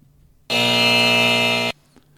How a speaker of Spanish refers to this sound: Así que vamos a poner el sonido de error igual.